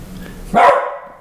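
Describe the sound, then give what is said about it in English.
A single sharp bark from a dog named Lucy rings out, loud and abrupt, then trails off quickly against a low background hum. “Shh, shh, shh, Better not bark. You're gonna get sprayed.”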